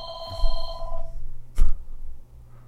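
A telephone rings with a bright, steady electronic trill for a solicitation call, stopping after under a second, followed by a sharp clunk like a receiver being lifted, over a low background hum.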